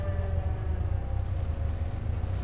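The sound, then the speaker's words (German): A deep, steady drone of about 1800 bomber aircraft engines, layered and continuous with a low throbbing hum and faint higher tones, filling the whole stretch without pause or voices. “Es war das Geräusch von 1800 Flugzeugen.”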